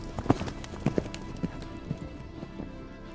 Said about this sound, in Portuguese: Seguiu a pé sozinho e os inimigos atrás. Era possível ouvir o ruído dos cavalos.